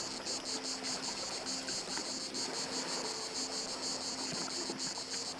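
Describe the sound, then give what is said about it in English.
A dense chorus of cicadas chirping in unison buzzes in steady, pulsing waves, loud and continuous throughout, with a faint low rumble of surf or wind underneath and no voices. “The cicadas chirp in unison, louder and louder.”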